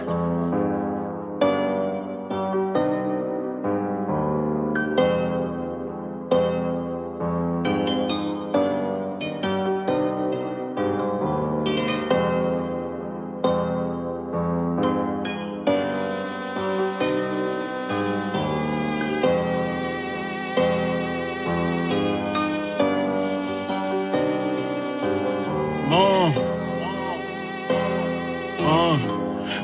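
A rap track plays continuously, a steady beat with dense layered instrumentation and a rhythmic vocal flow riding over it, loud throughout, with brighter synth accents building in the second half.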